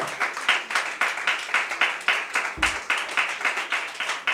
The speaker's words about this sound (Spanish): De la ofrenda de palmas al Señor, hermano.